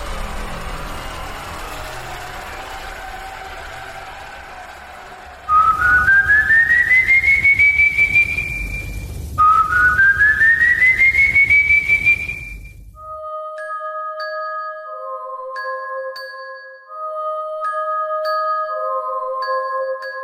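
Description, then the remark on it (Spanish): Two long, eerie whistles slide slowly upward in pitch, one after another, loud over a low rumbling ambience, before soft chiming tones take over. “Existe una leyenda nacida en Venezuela que hace que cada vez que escuches un silbido, un fuerte escalofrío recorra tu cuerpo.”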